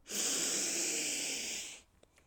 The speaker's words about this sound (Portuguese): Primeiro bebi um pouco de água, mas agora vou respirar fundo. Respirem comigo também. Inspirem.